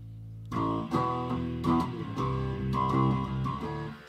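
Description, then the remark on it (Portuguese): A bass guitar plays a steady run of about eight plucked notes through a blend distortion pedal set to a very low intensity, giving a light, gritty distortion, moderately loud with no voices. “O pedal do blend, então uma intensidade bem fraquinha de distorção.”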